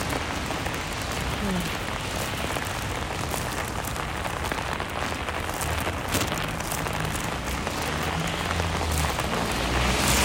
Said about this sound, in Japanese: でも本当雨すごいよ